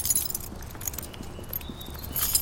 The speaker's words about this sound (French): vous avez la clé du château Oh oui, j'ai ça dans mon trousseau.